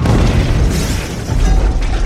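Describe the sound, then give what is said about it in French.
A car smashes through a building wall: a loud, heavy booming crash with dense rumbling debris that stays loud for about two seconds, with no voices. “Oh mon Dieu, que se passe-t-il Oh my God, c'est une voiture qui a défoncé le mur de l'immeuble.”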